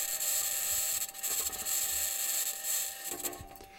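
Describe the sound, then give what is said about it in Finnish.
Martian wind captured by the microphone of the Perseverance rover's SuperCam instrument atop its mast: a continuous, fairly loud hissing rush that gently swells and dips, with faint scraping, rubbing textures and no voices. “Kuten alussa mainitsin, on tämä ääni Perseverance kulkiassa olevan mikrofonin tallentamaa, ja tässä on tosiaankin tuulta”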